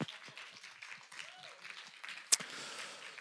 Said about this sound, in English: A round of applause